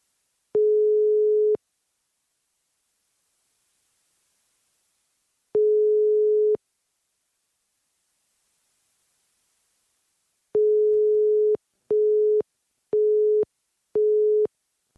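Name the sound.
telephone call tone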